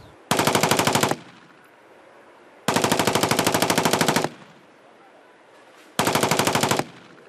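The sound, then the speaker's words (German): Three bursts of automatic rifle fire during a shooting exercise, emptying a whole magazine, each a rapid, evenly spaced string of loud, sharp cracks lasting about one to one and a half seconds, separated by quieter pauses. No one speaks. “Feuerstoß schießen. Ein ganzes Magazin leerballern.”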